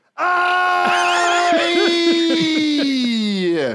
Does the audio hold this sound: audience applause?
no